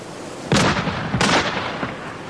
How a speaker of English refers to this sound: The episode opens with Hastings just falling in love with clay pigeon shooting. Where did that come from? The whole art of clay pigeon shooting lies in the time. The trick is when I say pull.